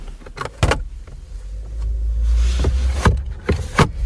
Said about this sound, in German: Die Fensterheber sind rundum elektrisch. Serienmäßig allerdings nur vorn, aber immerhin. Was nervt ist aber, dass die Scheibe nur in der Fahrertür automatisch ganz auf und ganz zugeht.